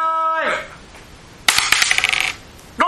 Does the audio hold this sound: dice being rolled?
yes